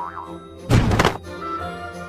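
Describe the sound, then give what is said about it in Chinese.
A cat leaning too far forward flips over and tumbles off a table, landing with one loud, heavy thud lasting about half a second, set against a quiet, steady tonal background. “说时迟，那时快，花猫因为身体过于的向前倾倒，所以整个人翻了过去，从桌上跌了下来。”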